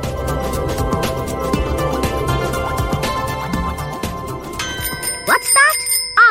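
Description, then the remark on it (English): A bright halftime bell rings out near the end with sustained, shimmering tones, following several seconds of busy, dense background sound; it is clear and fairly loud. “that's the halftime bell, which means it's time to hear what's making news around the rest of the world.”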